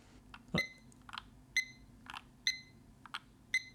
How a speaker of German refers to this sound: Aber ja, das ist, das ist der Wecker.